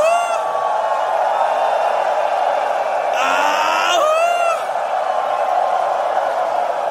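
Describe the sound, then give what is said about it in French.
A crowd of voices howls together in a sustained, wolf-like wail, with rising and falling pitch swells peaking midway before easing back into a loud, steady roar. “Mes amis Laissez sortir la bête et hurlez avec moi comme un loup.”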